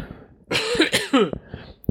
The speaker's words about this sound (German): Was, ja, ja, huste mal dezent im Hintergrund, du kleiner äh, Streber.